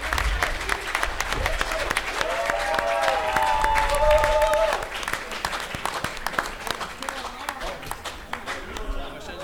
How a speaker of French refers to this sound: Donc, merci beaucoup. On les applaudit, s'il vous plaît.